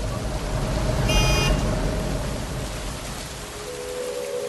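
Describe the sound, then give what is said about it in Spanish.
Steady rain hisses over a low rumble of city traffic, with a short burst of car horn honking near the start and another horn sounding faintly toward the end. “O son los trancones, o la inseguridad, o la lluvia.”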